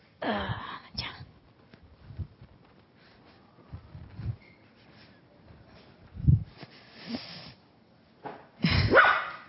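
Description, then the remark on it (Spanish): A dog, Luna, barks repeatedly while being held, in sharp, uneven bursts, with quieter pauses between them and a loud final cluster of barks near the end. “Tuve que agarrarlo porque estaba ladrando mucho.”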